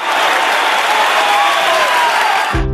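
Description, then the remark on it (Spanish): Dense, sustained applause from a large crowd at a daughter's graduation ceremony, loud and steady throughout, with faint cheering tones rising over it before it cuts off abruptly at the end. “Así suena la graduación de tu hija, después de todo tu esfuerzo, por superar tus problemas con el juego.”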